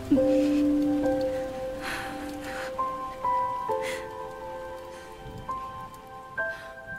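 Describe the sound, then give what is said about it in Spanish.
Steady rain patters on a roof in a continuous, fairly close hiss, while a few soft sustained musical notes ring out over it. No one speaks. “Lloró como si pretendiese competir con la lluvia que repiqueteaba sobre el tejado.”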